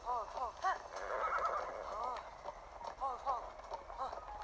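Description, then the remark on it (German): A horse whinnies repeatedly in short, wavering bursts, fairly loud, while hooves clip-clop steadily underneath throughout. “Ohne Pferd fällt man da runter. Man kann auch nicht schnell reiten.”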